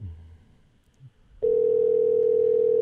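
A steady electronic telephone tone abruptly starts partway through and holds loud and unbroken to the end, like a call ringing out while waiting for someone to pick up, after a quiet low rumble.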